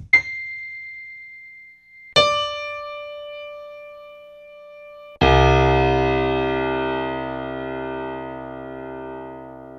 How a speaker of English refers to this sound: some lovely pianos there. Part of me wanted to like load um, a MIDI file and just pop those um, pianos onto it. Uh, your cat just walking along your piano or something? Yeah. Yeah, that was the cat on the keys.